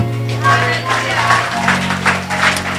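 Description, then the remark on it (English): A church audience claps and cheers for Jesus during a service, a diffuse, steady wash of applause over sustained organ chords that shift midway, the crowd noise lively but partly blended into the music. “Come on, give him a big hand clap.”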